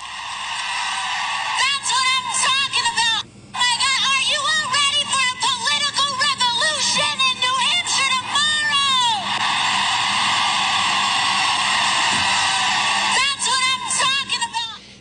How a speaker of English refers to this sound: Listen to this crowd for Alexandria Ocasio Cortez, as we call it, AOC, working the rally.